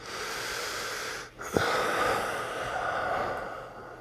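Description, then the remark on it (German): Heavy, noisy breathing, a steady rush of air with a brief pause and a sharp intake partway through, no talking. “Oder atmest du so schwer? Das ist ein schönes Atmen.”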